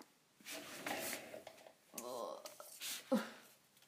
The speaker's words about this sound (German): Uh, jetzt sind mir die Karten runtergefallen.